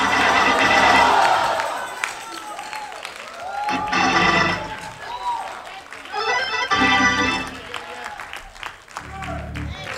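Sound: audience shouting and cheering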